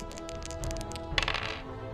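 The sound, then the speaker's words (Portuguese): Dice being rolled for damage rattle with a few quick light clicks, then a louder clattering tumble that settles, over a steady low background hum; nobody speaks. “Rola o dano.”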